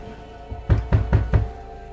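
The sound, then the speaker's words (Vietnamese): Four heavy, evenly spaced thuds as a woman pounds on the wooden door of a maid's room after crossing a rain-wet courtyard, loud, with a low resonant boom on each hit and no voices. “Bà gắng gần chạy đến phòng của con hầu gái Tên đập cửa miệng gọi đến lạc cả giọng”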